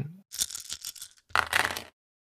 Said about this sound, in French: Alors cette fois, tu vas me faire le même jet mais avec 12 dés